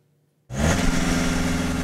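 After a brief silence, a car engine suddenly roars to life and revs loudly, a dense, steady rumble that holds strong to the end with no talking.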